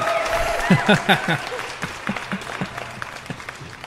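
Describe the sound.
A short burst of applause from a small group, with dense clapping and a few louder voices cheering over it before it thins out.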